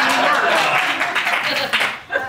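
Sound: audience clapping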